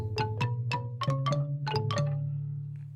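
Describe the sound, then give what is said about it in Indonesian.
A wooden xylophone, a kolintang, is played in a music shop: a short run of struck notes, about eight clear mallet hits stepping through pitches with a sustained low ring beneath, moderately loud, no voices. “Ini namanya kolintang.”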